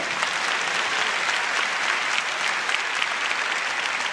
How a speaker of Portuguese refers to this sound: aplaude e glorifique o nome do Rei.